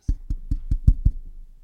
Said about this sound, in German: Hat das geklopft? Ja.